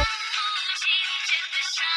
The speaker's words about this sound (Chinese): 突然，他的电话响起。